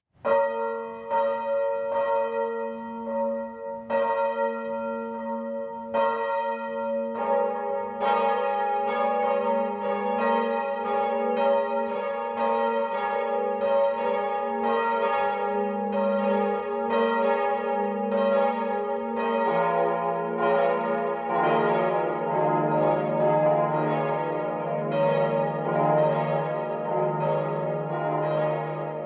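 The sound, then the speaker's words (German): Church bells of the Catholic parish church Herz Jesu in Selb, Upper Franconia, Germany, ring the 12 o'clock midday peal, one bell striking alone at first before several more join in a dense, continuous overlapping clangour that stays loud and resonant throughout, with no voices. “Das Mittagsläuten kommt heute von der katholischen Pfarrkirche Herz Jesu im oberfränkischen Porzellanort Selb.”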